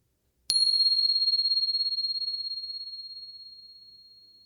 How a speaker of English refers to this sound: So just settling in. And here comes the bell.